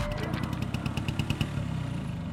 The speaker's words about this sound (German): So, gleich geht's endlich weiter mit der Vespa.